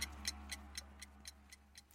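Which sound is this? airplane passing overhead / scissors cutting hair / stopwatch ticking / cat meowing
stopwatch ticking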